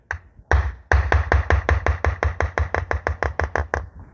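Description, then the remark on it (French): A fast, steady run of about eighteen light chasing-hammer strikes on metal, crisp, each tap sharp and ringing briefly. The blows taper off in force toward the end as the metalworker uses the lancer technique, a heavy strike reduced little by little to form a small tapering drop shape. “Ça, c'est le bruit du mmh. lancer.”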